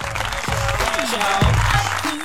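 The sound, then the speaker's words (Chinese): Sustained crowd applause, a dense steady wash of clapping that stays loud for the whole stretch, with a few brief vocal whoops and tones rising above it. “掌声在哪里？呱唧呱唧吧！”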